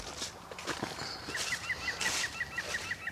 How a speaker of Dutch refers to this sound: Het alarmsysteem is afgegaan, hè? ja. ja. ja. Was dat, eh, dat is geen vink, hè? Dat is een... Wat was dat? De, groene specht. De groen, was dat de groene specht? Ja, ja die alarmeert.